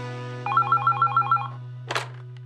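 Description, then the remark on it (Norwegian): A telephone rings once with a quick burst of warbling electronic pulses as a call comes in to the NRK P13 radio show Radioresepsjonen, followed by a short rustling click like a receiver being picked up, over a steady low hum. “Det er Tore Davidsen Hurt som ringer.”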